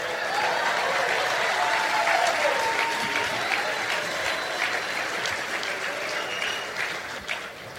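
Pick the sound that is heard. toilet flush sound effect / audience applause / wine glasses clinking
audience applause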